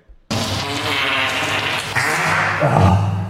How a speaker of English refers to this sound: … says fart noises. Why, …?